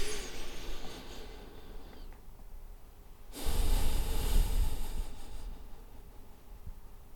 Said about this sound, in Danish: Øhm, kan jeg bede dig om at lukke øjnene igen? Mm. Og så øh, lige tage en dyb vejrtrækning.